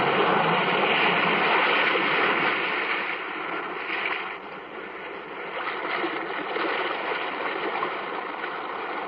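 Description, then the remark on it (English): Restless sea waves churn and wash in a cave in a steady roar, swelling and easing slightly with a hollow, enclosed quality. No voices are present. “The weird circle in this cave, by the restless sea”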